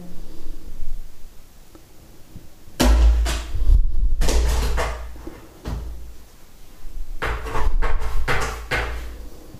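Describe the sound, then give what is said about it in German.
Rattling and knocking as a pet plays with a door, coming in two bursts of clattering bangs and thumps separated by a brief lull, with no talking. “der spielt immer mit der Tür irgendwie.”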